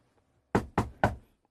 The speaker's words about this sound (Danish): og øh, vælger så at banke på døren for at høre. Der bliver ikke svaret derinde.